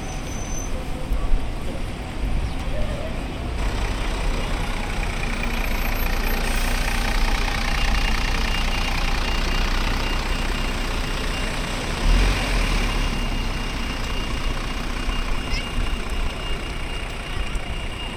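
Bus engines idle in a steady low rumble for the whole stretch, with traffic noise and faint background voices at a busy bus stop on the way from Priory Place to Pool Meadow.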